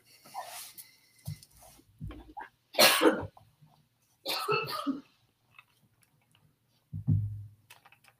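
Several harsh coughs come in separate bursts, with a few stronger fits spaced by short quiet gaps and some smaller throat noises between them; nobody speaks.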